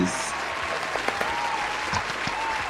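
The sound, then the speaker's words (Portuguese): Steady applause from a crowd, a dense continuous patter of clapping that holds at an even level throughout, with a faint thin tone drifting beneath it. “Palmas para todos, para todos.”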